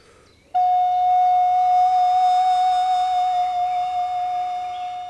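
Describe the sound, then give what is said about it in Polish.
A single sustained woodwind note played fairly loud with flattement, a finger vibrato over part of a partly closed tone hole, its pitch gently wavering for about four seconds before slowly fading a little. No one speaks. “ruchu palcu na części, zamknię, części zamkniętego otworu, co dawało nieco inny efekt”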